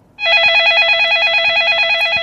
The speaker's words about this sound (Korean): 네, 벨렐렐렐렐레 전화벨 소리입니다. 아, 1부에 나가는 노래 이 소리 숨겨놓을 거예요.